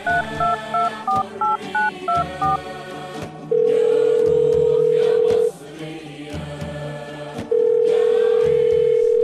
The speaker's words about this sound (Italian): Regge una sigaretta accesa tra due dita, mentre con la mano libera afferra la cornetta del telefono e digita un numero a memoria.